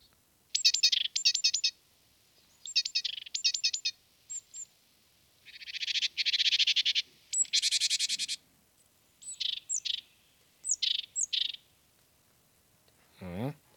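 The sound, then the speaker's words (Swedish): Bird song in short, high-pitched bursts: rapid chirping trills and a buzzy rattling phrase, repeated with brief pauses, clear, with no talking over it. “Och på fråga B så vill vi veta vad äter den här fågeln gärna?”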